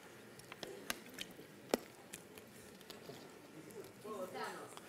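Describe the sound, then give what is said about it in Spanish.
Someone drinks water: a few quiet sips and gulps with soft wet clicks and swallowing sounds, and a brief slurp near the end, with no talking. “A ver, cuéntenme mientras tomo agua.”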